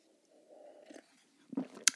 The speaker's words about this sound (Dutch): Maar eerst een slokje thee.